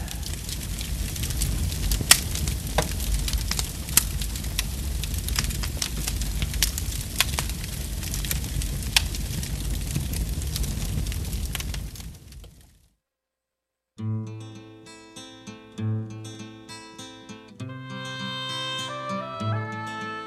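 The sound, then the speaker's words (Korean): Firewood burns with a steady crackle and frequent sharp pops for about twelve seconds, then stops; after a brief silence, gentle melodic music begins. “오늘따라 이 장작 타는 소리가 참 따뜻하게 들려지네요.”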